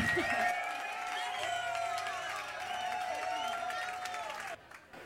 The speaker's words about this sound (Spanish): aplauso para la banda, por favor.